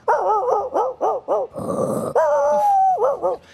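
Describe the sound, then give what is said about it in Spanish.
A voice imitates a dog barking, a quick run of short yapping barks, then a growly snarl and a long drawn-out howl before two more barks, loud. “Y le ladra a la nada misma, le ladra al perro.”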